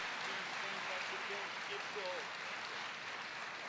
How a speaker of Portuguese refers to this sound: Você pode dar uma oferta de salvo de palmas para o Senhor?